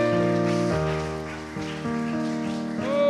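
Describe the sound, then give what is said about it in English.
An audience claps steadily, a dense, continuous patter of many hands beneath loud, sustained organ-like chords that change pitch a few times. No one speaks. “Let's clap our hands to the Lord here this morning.”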